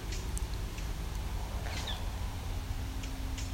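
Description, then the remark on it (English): A catbird gives a single soft, cat-like mewing call, faint against steady outdoor background noise, with a few brief high chips scattered around it. “Well, it could be a catbird.”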